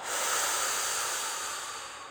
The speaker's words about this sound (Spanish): Entonces vamos a empezar respirando, vamos a hacer una respiración distinta, vamos a inhalar fuerte y profundo y exhalo fuerte por la boca.